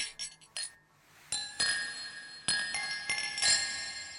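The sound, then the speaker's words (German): Several glasses clink together in quick succession, bright ringing taps with lingering metallic tones, fairly loud, as people drink a toast, with no talking. “Prost, Baby. Prost. Prost. Prost.”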